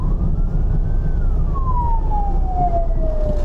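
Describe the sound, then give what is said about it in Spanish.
An ambulance siren wails, its pitch sliding down as it passes, over a steady low rumble of engine and traffic noise. “Oh, esto es una ambulancia, me quito”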